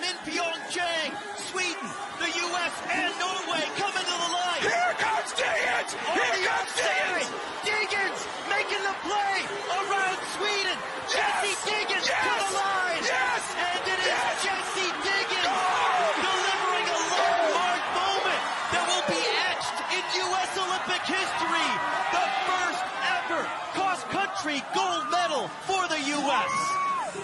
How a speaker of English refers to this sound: And Stina Nilsson leading Jessie Diggins into the final turn. Can Diggins answer? As the roars rattle around the cross-country stadium.